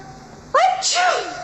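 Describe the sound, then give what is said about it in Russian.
A single loud sneeze: a short rising, voiced 'ah' intake that bursts into a sharp, breathy blast and then tails off, heard alone over a faint steady hum. “Как услышу их фамилии, так и чихаю с утра до вечера без передышки.”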